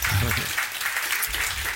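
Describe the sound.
An audience claps steadily, a dense crackle of many hands close by, with a brief murmur of voices underneath near the start.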